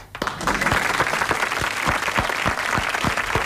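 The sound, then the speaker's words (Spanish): Sustained audience applause, a dense wash of clapping with a steady rhythmic beat of stronger claps running through it, loud and continuous throughout. “¿Hasta qué hora van a aplaudir?”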